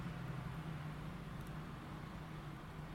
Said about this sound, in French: Les voitures passent et klaxonnent au loin.